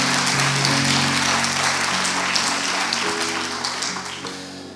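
A crowd claps steadily in a dense, sustained burst of applause, with a low musical drone underneath; the clapping gradually thins and softens toward the end.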